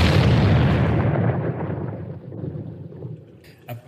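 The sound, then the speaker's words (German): A loud, deep explosion erupts at once, its broad roar slowly dying into a long low rumble over several seconds, with a small thump just before the end and no voices. “Die Explosion ist ja in deinem Kopf.”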